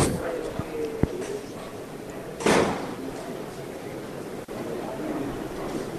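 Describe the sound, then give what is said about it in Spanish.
A sharp, single knock, the third, of the hammer on a crucified Christ procession float in the Plaza de San Pedro rings out over a steady crowd murmur, followed by a brief rushing burst of noise and another faint click. “Tercer golpe de martillo.”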